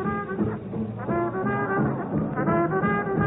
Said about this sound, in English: a big, wonderful band that sounds like this.